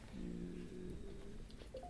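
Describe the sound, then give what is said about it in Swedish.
A faint electronic alert from a phone warning its owner: a couple of short, rising beeps near the end, over a low steady hum with no one speaking. “Ja, det var telefonen som varnade mig.”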